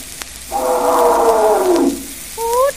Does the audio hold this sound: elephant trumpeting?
yes